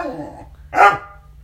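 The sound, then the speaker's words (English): A dog growls low and rumbling, then lets out a single loud, sharp bark, followed by a brief fading tail. “It's tough shit, dog. She's out. Deal with it.”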